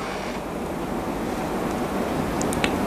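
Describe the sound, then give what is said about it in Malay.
A steady, dense wash of heavy rain roars without pause, fairly loud, with a few faint higher ticks and patters near the end. No one speaks. “hujan yang teruk macam ni”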